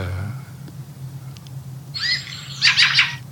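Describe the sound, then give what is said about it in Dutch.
A fieldfare, a thrush, gives a harsh, rasping call: a drawn-out scratchy note followed by a quick burst of three or four loud chattering tjak-tjak notes, with low background rumble and no voices. “En, dat, maar dat diepe tjak-tjak, dat is echt een geluid wat bijna geen andere lijster maakt in Nederland.”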